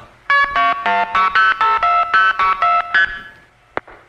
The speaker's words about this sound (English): That's the sound of Youngstown, Ohio, dumping us into a trunk to Canton. And that's the handshake from Canton. Now we're in Youngstown again, which stacks into Canton, and then Canton gives us the handshake.